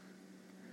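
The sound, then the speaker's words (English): A refrigerator hums steadily and quietly in the background, a constant low drone with a soft airy hiss and no voices. “Um, I will tell you that if you can hear that sound in the background, that's the fridge humming.”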